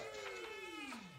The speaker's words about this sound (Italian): Il gatto è tornato, che facciamo?